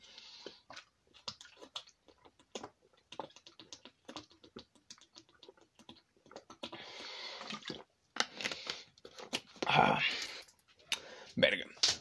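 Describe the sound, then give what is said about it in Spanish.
Drinking sounds as a speaker takes a little water: a run of small wet clicks and mouth noises, then louder sips and gulps in quick bursts, with no talking. “discúlpenme, pero voy a tomar un poquito de agua porque...”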